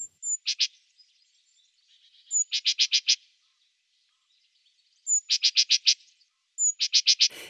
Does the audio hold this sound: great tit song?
yes